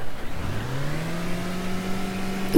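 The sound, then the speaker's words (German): A car engine in neutral revs hard at full throttle, its pitch climbing quickly and then holding at a high, steady roar for a couple of seconds. It is loud, with no one speaking. “Vollgas.”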